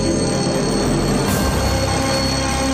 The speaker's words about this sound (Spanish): Al sonar el despertador